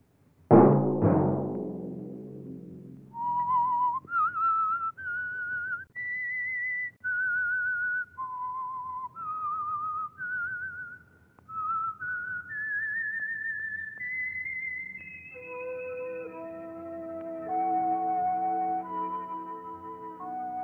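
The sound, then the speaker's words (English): A loud musical sting gives way to a solo whistled melody of distinct, sustained notes rising and falling; partway through, orchestral accompaniment joins beneath the whistling. This is the whistled theme of The Whistler, the Signal Oil radio program. No one speaks. “Let that whistle be your signal each Sunday for the Signal Oil program, The Whistler.”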